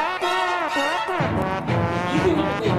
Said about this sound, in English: bring back uh, trombone. There it is. Okay, here we go. All right. They still can't see it, but you can hear it now.